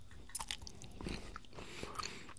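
Someone chewing edamame: a few soft, irregular crunches and moist mouth sounds over a couple of seconds, fairly quiet, with no one talking.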